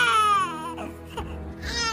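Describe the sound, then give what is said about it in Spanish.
A baby cries loudly and continuously, a high wailing cry with a falling pitch that dips briefly before rising again in another strained wail. “sigue llorando y su lloro llama a Bakari”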